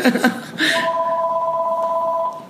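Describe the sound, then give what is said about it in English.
A telephone rings with a steady electronic two-note tone that holds for about a second and a half, preceded by a brief clatter of handling noise. No voices. “phone is ringing.”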